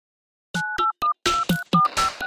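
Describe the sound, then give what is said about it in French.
A quick run of telephone keypad dialing tones, about seven or eight short beeps pressed in an uneven rhythm, fairly loud with some clicky noise mixed in. “Un téléphone qui dit ouais à la technologie.”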